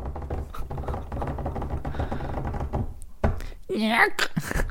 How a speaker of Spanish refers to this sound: Y ahí saqué la trompeta. Ahí cerré el cajón.